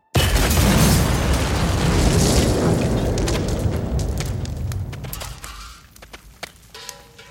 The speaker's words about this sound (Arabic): في لحظة غفلة في سيارة الأب تنفجر عبوة ناسفة